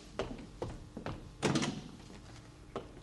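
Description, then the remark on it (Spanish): Several dull thuds on a door, spaced unevenly, followed by a louder wooden clatter as the door is handled and opened, then one more soft knock. No one speaks. “Han llamado a la puerta.”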